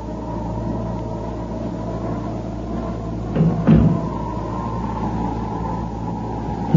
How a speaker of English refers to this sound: doors go shutting far in the distance, gently knocking like the pulse of a heart. Nearer they come. Cease at the doorway.